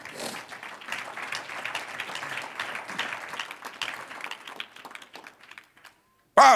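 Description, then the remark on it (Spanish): A crowd at a sermon applauds the Lord steadily for about five seconds, dense overlapping claps that thin out and fade to silence before a brief loud burst at the end. “Un aplauso al Señor.”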